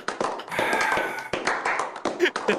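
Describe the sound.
A short burst of hand clapping, dense and fairly loud, with sharp slaps running together for a couple of seconds before breaking into a few scattered claps, with voices mixed in.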